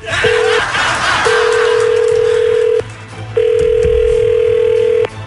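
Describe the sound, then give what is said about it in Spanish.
A telephone ringback tone as a call is placed to someone in Tamaulipas: a steady mid-pitched electronic beep, one short burst then two long sustained tones separated by pauses, over a faint background hiss. “Sí o que no vayas a hablar, ahorita le vamos a marcar.”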